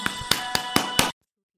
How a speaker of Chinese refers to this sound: 掌声有请！